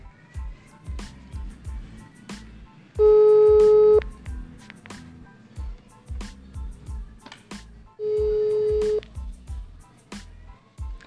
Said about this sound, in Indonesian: Jadi sedikit kita ganggu juga nih ya kan jadi so kita coba telepon orangnya ya kan semoga diangkat dan nggak sibuk nggak sibuk lah mau ngapain dia